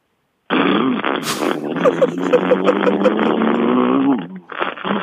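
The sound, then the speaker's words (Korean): A voice imitates a motorcycle with an unstable, faulty muffler: a loud buzzing engine drone broken by rapid rhythmic sputtering pops, lasting about four seconds before a brief pause and restart. “머플러가 좀 불안정한 오토바이”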